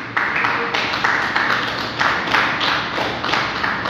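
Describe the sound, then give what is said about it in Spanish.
A crowd applauding for Jesus Christ, many hands clapping steadily in a dense wash with a loose rhythmic pulse of stronger beats about every half second, loud and sustained throughout. “Le quiero dar un aplauso a Jesucristo.”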